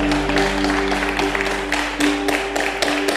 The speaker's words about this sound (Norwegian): Det går an å gi dette lovsangstimet her en sånn rik klapp. Veldig bra.